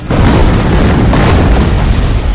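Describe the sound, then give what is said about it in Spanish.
Heavy, continuous explosions from missiles fired by warships onto the coast of Wolmido Island roar without pause, a dense low rumble of overlapping blasts at steady loudness across the whole stretch. No voices are heard. “En la costa los soldados huyen de las explosiones.”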